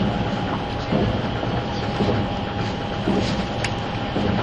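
A 651 series train running as the Super Hitachi 66 express from Sendai to Ueno: a steady, loud rumble with a faint sustained whine and rhythmic wheel clacks recurring about once a second, with no voices.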